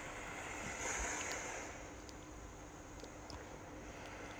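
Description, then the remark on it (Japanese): Soft, steady ocean surf washing ashore, with a gentle swell of a breaking wave early on before settling into a continuous hiss of water. No voices. “皆さん、波の音を聞いて癒されてますか”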